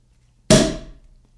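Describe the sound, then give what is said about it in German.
A sparkling wine cork pops once, a single sharp, loud bang followed by a brief hissing fizz that fades within half a second, with no talking. “So, jetzt der große Knall.”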